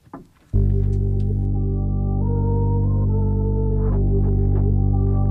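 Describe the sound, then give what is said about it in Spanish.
A rap song's intro kicks in abruptly after a brief rustle, with loud, sustained droning synth chords that shift pitch a couple of times and no vocals yet. “esto último que he soltado pues se llama … y suena así”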